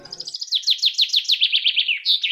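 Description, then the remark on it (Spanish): A small bird chirps in a fast, steady series of bright, high-pitched notes, about a dozen in quick succession, clear with no talking. “Y mm, le gusta la música, eh, los pajaritos, eh, el sonido de cuando uno abre un paquete de papas fritas, esas cosas le gustan.”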